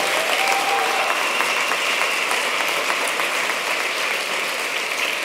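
A crowd applauds steadily, a dense, even wash of many hands clapping at once with no gaps, holding a fairly loud level from start to finish with no voices.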